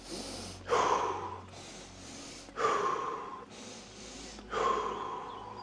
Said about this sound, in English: Let's do a double inhale through the nose, single exhale, mouth for 60 seconds, which will sound like this.